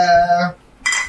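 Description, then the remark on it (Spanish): Two glasses clink together in a toast: a bright, ringing chime that hangs for half a second, then a brief pause and a second sharp clink. Fairly loud, with no talking. “Oye, no hemos brindado salud.”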